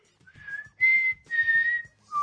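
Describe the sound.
A person whistles a short, clear four-note tune imitating the mockingjay call from The Hunger Games, the notes rising then dropping at the end, with no talking over it.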